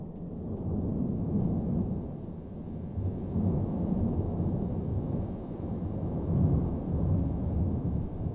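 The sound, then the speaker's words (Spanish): A deep, continuous rumbling roar of the erupting Cumbre Vieja volcano before dawn, a month after the eruption began, heavy low-end energy churning steadily with slight swells in loudness, no voices present. “Este es el sonido que está emitiendo el, volcán.”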